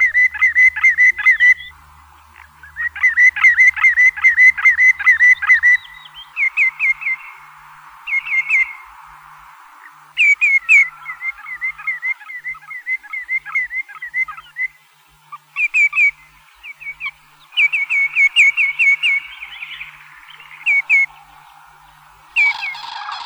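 Common greenshank calls: loud, ringing whistled notes in quick repeated series, with trilling bursts and short pauses between phrases, heard clearly, with no talking.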